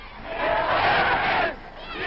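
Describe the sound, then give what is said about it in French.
A huge crowd massed in front of the Imperial Hotel roars and cheers, acclaiming Hitler as he arrives as a conqueror, in a dense, continuous wash of voices swelling loudly through the middle before easing back, with a muffled, old-recording quality. “Et derrière les automitrailleuses, parmi les hommes en armes, Hitler, acclamé, arrive en conquérant à l'hôtel impérial devant lequel une foule immense s'est massée.”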